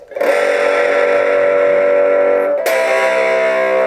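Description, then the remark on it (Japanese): A loud, heavily distorted electric guitar rings out through a handmade plug that becomes an amp when plugged in and twisted. One buzzing sustained chord is struck again partway through and keeps droning, with no talking. “えどんなものかとね申しますとねこう差しましてですねこうひねるとアンプになっちゃう”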